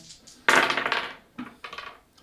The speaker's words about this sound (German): Also das, das sind schon mal 3. Und die 6 darfst du nochmal würfeln.